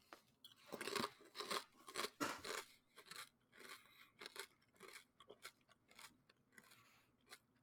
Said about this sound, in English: I, I think isn't like uh, eating sounds super polarizing. Like, aren't some people it, gonna like unsub it, instantly if I do this? If you hate this, skip the next ten seconds.